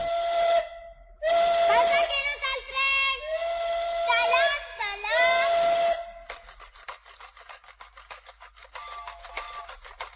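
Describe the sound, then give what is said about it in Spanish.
A steam train whistle shrieks in several loud, breathy blasts with hissing steam, then gives way to the rapid rhythmic chuffing of the locomotive pulling away. “Su silbato espanta vacas, su ruidito de matraca, sus vagones de hojalata de sartén.”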